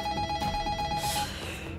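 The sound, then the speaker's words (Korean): A telephone bell rings unanswered in a busy Japanese community office during disaster recovery work, a rapid, trilling electronic warble, steady, then cuts off abruptly partway through, leaving a faint hiss behind. “결국 전화는요, 벨이 울리다가 응답을 받지 못한 채 끊어지게 됐고요.”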